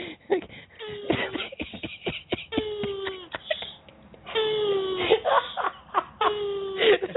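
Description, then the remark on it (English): A male tortoise's mating calls while mating with a female: repeated strained, wheezing moans and groans in rhythmic bursts, fairly loud, with short pauses between each drawn-out cry. “oh my god, they're having like an asthma attack. No, they have the softest like there's these little tortoises”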